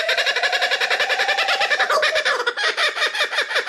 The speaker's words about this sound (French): Et ça, vous savez ce que c'est Eh bien, c'est le cri d'un kookaburra, un oiseau qui vit en Australie.